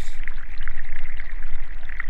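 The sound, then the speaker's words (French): Flowing river water babbles and gurgles steadily throughout, a continuous rush with small bubbling splashes and no voices. “Tout commence dans une rivière.”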